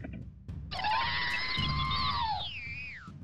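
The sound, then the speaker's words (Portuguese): A voice mimics a small droid's complaining scream as someone approaches its cockpit: one high, whiny tone held for about two seconds that wavers slightly, then bends downward at the end over a low background rumble. “Ele dá um pequeno grito e tu nota que ele tá reclamando.”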